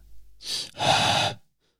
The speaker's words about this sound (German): Wer atmet da? Darth Vader ist da.